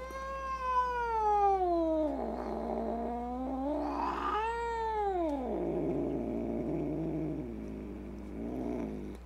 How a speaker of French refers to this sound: Donc si vous faites quelque chose pendant des heures avec passion, hein, j'insiste, et que vous oubliez de nourrir le chat et que le chat il mange pas toutes les 20 minutes, et eh ben ça donne ça.